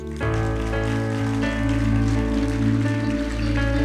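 Steady clapping from a crowd blends with sustained keyboard or organ chords and a deep bass tone, the applause forming a loud, even patter beneath the music throughout.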